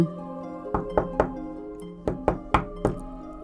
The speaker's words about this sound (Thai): เมื่อแมวสาวร้องตอบแล้ว มันก็วิ่งตุ๊บตุ๊บตับตับขึ้นไปชั้นบน ไปเคาะประตูเสียงดัง